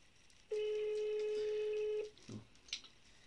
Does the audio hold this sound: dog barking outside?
no